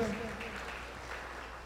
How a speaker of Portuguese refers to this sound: Vamos aplaudir ao Senhor pela vida dele.